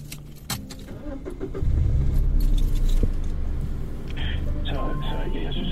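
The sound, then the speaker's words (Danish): Keys jangle briefly near the start, then a car engine starts up and settles into a steady low rumble as the speaker drives home, with a voice faintly in the background. “Nu vil jeg køre hjem”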